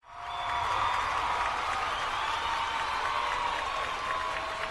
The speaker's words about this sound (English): can you put in some applause there?